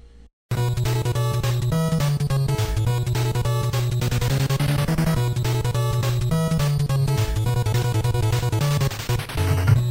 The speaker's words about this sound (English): he wrote lyrics and um, he calls this he calls this song River City Nights